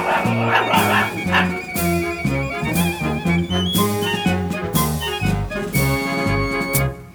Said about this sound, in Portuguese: Ora, Lunão, pare de latir!